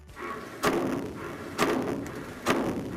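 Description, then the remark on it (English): Three sharp, heavy bangs of water hammer echo through water pipes at roughly one-second intervals, each a loud knocking thud with a brief ringing tail over a low background hum, as rushing water slams to a stop at the end of a line. “So if you're hearing banging in your pipes that sounds like this,”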